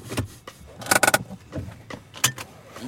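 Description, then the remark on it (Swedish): Sounds of getting into a car in Dalarna before driving to the neighbouring village of Skattungbyn: a jingle of keys, a cluster of sharp clicks and thumps like a door and seat, then a few softer knocks, with no voices. “jag satte mig helt enkelt i bilen och åkte till grannbyn som heter Skattungbyn.”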